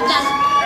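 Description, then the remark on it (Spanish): A crowd lets out a loud, sustained shout together on cue, a dense wall of many voices with high-pitched cries mixed in, held steadily for the whole short moment. “Oigan ya, cuando yo diga comenzamos, un grito, pero un grito que se escuche a otros países.”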